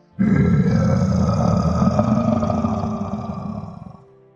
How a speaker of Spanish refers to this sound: Justo en ese momento, el rugido de una bestia resonó en las cercanías.